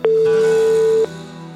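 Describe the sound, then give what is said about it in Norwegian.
A steady electronic telephone ringback tone, heard while calling a family, holds one pitch for about a second, loud and clean, then cuts off, leaving a faint background hum. “Så for å finne ut om dette faktisk stemte så måtte jeg bare ringe denne familien.”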